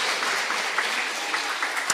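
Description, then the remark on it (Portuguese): An audience applauds the Lord steadily, a dense wash of many hands clapping at an even, sustained level with no voices standing out. “Podemos aplaudir o Senhor por isso?”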